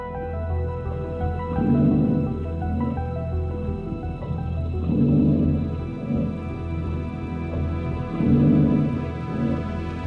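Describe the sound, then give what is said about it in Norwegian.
An underwater hydrophone recording made in 1999 by a Swedish sea-serpent hunter, judged by researchers to sound biological in origin: a steady low droning hum with faint tonal whines, broken by muffled, gurgling swells that rise and fade about every three to four seconds. No voices. “Svensken greier å tåke opp lyd med mikrofon under vann. En hydrofon.”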